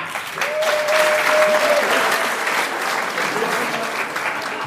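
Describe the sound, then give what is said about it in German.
A live audience claps steadily for several seconds, voting by applause for the performer to take off his sakko (jacket): a dense, sustained wash of applause with a faint whistle or cheer near the start and a slight tapering toward the end. “Wer ist für das Sakko? Bitte jetzt einmal applaudieren.”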